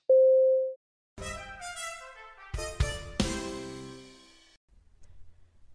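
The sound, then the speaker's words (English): A radio time announcement tone on the Mutual Audio Network marking 12 o'clock: one steady, clear beep lasting under a second, followed by a few bright chime-like notes that ring out and slowly fade, with no talking. “At the tone, the time will be 12 o'clock.”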